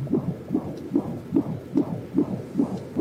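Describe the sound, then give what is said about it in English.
A fetal heartbeat on Doppler ultrasound, the Doppler placed on the mother's belly by a sonographer: rapid, steady whooshing pulses, about seven in three seconds, with a muffled, watery throb between beats and no voices. “But then the sonographer puts the Doppler on her belly, and the sound of the baby's heartbeat begins to resound in the room.”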